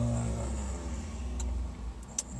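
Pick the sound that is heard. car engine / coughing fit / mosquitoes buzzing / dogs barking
car engine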